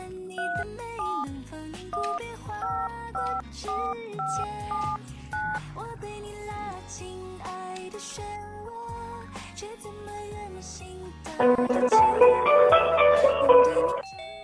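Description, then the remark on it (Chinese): A run of electronic telephone dialing tones after a phone call was cut off, steady beeps stepping between different pitches with no talking, ending in a louder, denser burst of tones over the last few seconds. “Hello，好像断了，我还需要打过去吗？”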